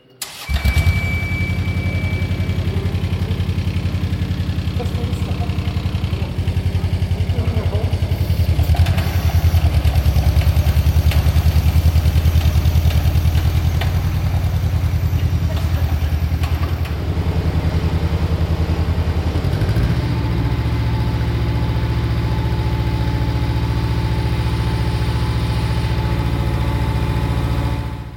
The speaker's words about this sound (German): Mit einem Minikran wurde der Rotor in den unteren Spulenkörper gehoben und in den Lagerschalen fixiert.